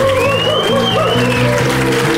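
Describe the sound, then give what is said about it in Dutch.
Audience applause in Leuven for the judges Alain Grootaars, Roosje Perts and Rob van Oudenhoven, a steady wash of clapping lasting the whole moment, mixed under sustained musical tones with a wavering high note gliding above. “Zeker nu ze ook nog een klein beetje applaus krijgen.”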